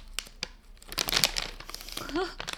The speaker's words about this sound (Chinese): 可是你可能会听过像这种。撕开包装